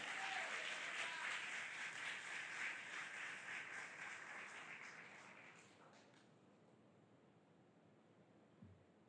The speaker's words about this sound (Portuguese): levante as suas mãos e aplauda Jesus com alegria